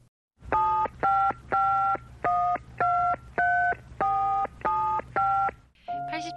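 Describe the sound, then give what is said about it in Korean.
A quick run of about nine telephone keypad tones as a call is dialed to the publishing magazine company Publishing Journal (출판저널). Each tone is a short dual-pitched beep separated by brief gaps, followed by the start of a ringing tone, with a low hum underneath. “제가 한번 전화해 보겠습니다.”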